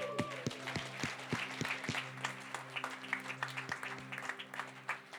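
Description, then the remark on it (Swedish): An audience applauds a band, who came from Finland, a dense rush of many hands clapping steadily throughout, with a few sharper individual claps standing out near the start over a low, sustained hum. “Vi har också eh, … som har kommit hit från Finland, så vi kan ge en stor applåd till dem också.”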